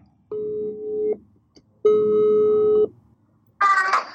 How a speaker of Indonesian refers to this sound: gua bakal coba ajak salah satu teman gue nanti gue bakal telepon sebentar uh, nah ini nih gue telepon